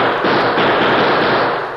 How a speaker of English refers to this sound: Because Tonto was in his line of fire when the lamp was overturned, the Lone Ranger was unable to match Del Kirby's gunshots. When he heard his Indian friend groan and fall to the floor, the Lone Ranger's silver mounted Colts began to spit lead.